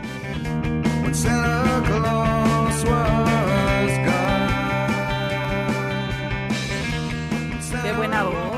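A rock Christmas song plays at full, steady volume, a male voice singing a sustained, wavering melody over dense guitars and a driving beat throughout.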